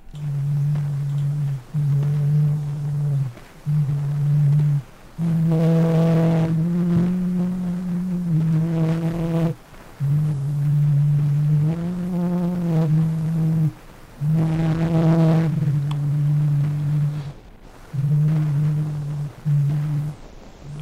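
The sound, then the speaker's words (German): A heavily distorted old recording of an adult man singing a song, his low voice smeared into loud buzzing, droning held notes that come in phrases separated by short pauses, almost unrecognizable as song. “Es war aber gar kein Kind, sondern es war ein erwachsener Mann, der ein Lied singt.”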